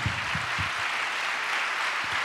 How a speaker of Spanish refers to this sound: Eso, denle un aplauso al Señor.